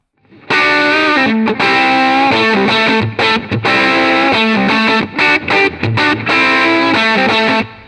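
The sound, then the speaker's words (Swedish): Distorted electric guitar played with full treble and no bass, a bright, fizzy, thin tone strumming loud chords in choppy bursts with brief gaps between them, no voices. “För det här, det här nu är, är det full diskant och ingen bas.”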